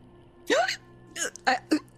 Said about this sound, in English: she hiccups.